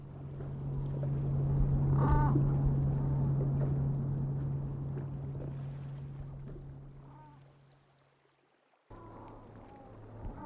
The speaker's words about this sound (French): C'est pas facile, le moindre mouvement sur ce bateau en caoutchouc est très bruyant.